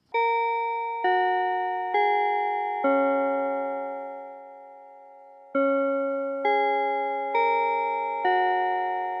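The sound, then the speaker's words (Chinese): A melodic bell chime strikes four ringing tones, the last left to fade slowly, then after a short pause plays four more. The tones are clear and sustained, with no talking. “好了，等下钟声过后就来结束今天的科技早起喽。”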